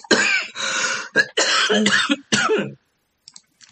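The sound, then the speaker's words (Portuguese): A run of four harsh coughs in quick succession, ending in throat clearing, followed by a moment of near silence with a faint rustle. “Pera só um minutinho, gente, eu vou tossir.”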